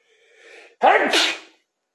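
A single loud sneeze: a soft breathy inhale building up, then a sharp explosive burst that trails off quickly into silence.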